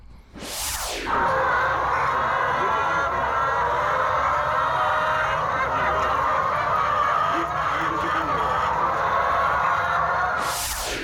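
A large flock of chickens at a poultry site in the town of Shakhtyorsk clucks and murmurs together in a dense, continuous chorus, steady and fairly loud throughout, with no one speaking.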